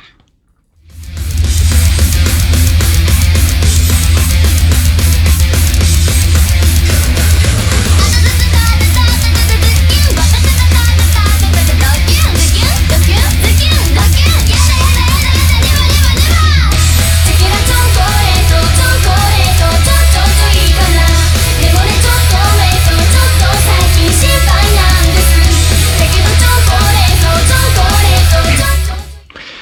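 A loud, dense Japanese idol metal song plays throughout, with heavy driving drums, thick distorted guitars and a booming low end, sustained at full intensity with no talking over it.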